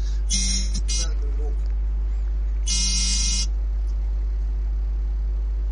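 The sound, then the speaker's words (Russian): A phone vibrates with an incoming call: two harsh, rattling buzz bursts about two seconds apart, each under a second long, fairly loud over a steady low hum. “Просто мне кто-то звонит.”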